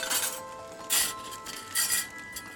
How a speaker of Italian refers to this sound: Man mano che ci avviciniamo a quell'unica fonte luminosa sentiamo i suoni di stoviglie e un indistinto vociare proveniente da dietro la porta.